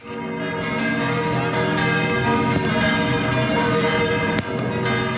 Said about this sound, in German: Wie das Grossmünster und das Fraumünster im Kanon nach Mitternacht das neue Jahr einläutet, das hat man noch selten so gut gehört wie an dem Corona-Silvester. So tönt es also, wenn das Wahrzeichen der Stadt Zürich das neue Jahr einläutet